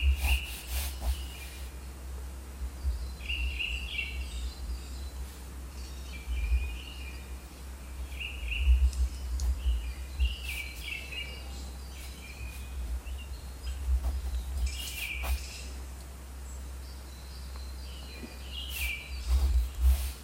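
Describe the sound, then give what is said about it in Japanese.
Birds chirp outdoors in scattered short bursts, repeating every few seconds, over a steady low rumble of background noise. No one speaks. “鳥が埋めてくれると信じてます”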